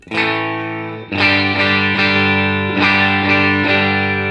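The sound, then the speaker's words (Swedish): Electric guitar through an overdrive pedal set to unity volume with the tone knob straight up, playing sustained, distorted chords at steady volume, with a few fresh strums about once a second ringing out. No one speaks. “utan nu ställer vi in igen då, sådär som vi försöker hitta Unity med tonen rakt upp mm.”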